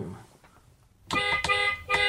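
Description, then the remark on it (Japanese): A thin, light car horn honks in three short bursts starting about a second in, bright and tinny with little body, after a brief quiet stretch with faint background murmur. “クラクション鳴らした方がいいよ、お前”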